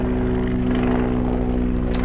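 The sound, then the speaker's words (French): A helicopter drones steadily overhead, its low rotor thrum and engine whine loud and continuous throughout, with no one speaking. “Encore Pause hélicoptère.”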